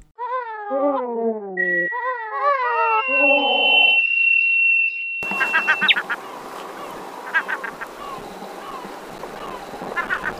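Loud, harmonic gull calls in a quick series of drawn-out, falling cries, clear in quiet surroundings, then continuing more faintly over a hissing, windy outdoor background.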